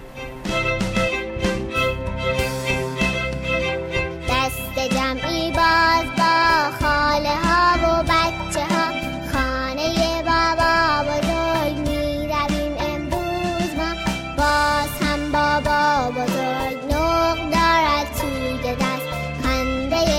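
A bright children's song plays loud and continuous for the whole stretch, with a lilting melody line riding over steady, bouncy accompaniment and no pauses.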